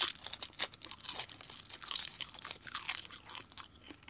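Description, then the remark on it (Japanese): Crisp crunching of high-grade dried seaweed (nori) from Aomori being chewed, a steady series of brittle, crackly bites and crinkles lasting several seconds with no talking. “またこのね、ポッドキャストで今、海苔の音をお聞きの皆さん、これは食べたくなると思いますよマジのりの音でございます”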